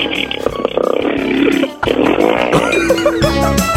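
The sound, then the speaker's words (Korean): A high school second-year girl's voice imitates a motorcycle engine with a loud, continuous buzzing rumble that revs and sputters, dips briefly partway through, then roars back up to the end, on Park Myung-soo's Radio Show. “오늘 어떤 거 준비하셨습니까? 저 오토바이 준비.”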